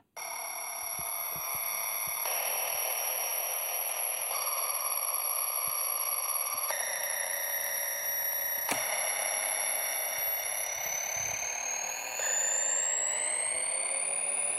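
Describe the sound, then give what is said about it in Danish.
A cheap red plastic children's toy keyboard with adjustable pitch sounds bright, buzzy electronic tones that hold steady, then step to new pitches every couple of seconds, ending with a high tone sliding steadily upward. No voices. “sådan her er et, et, et, et rødt plastik børne keyboard.”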